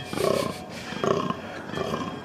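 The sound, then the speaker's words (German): A red deer stag roars during the rut three times in a row, deep drawn-out bellows spaced evenly about a second apart, moderately loud against a steady outdoor hiss. “Hirschröhre.”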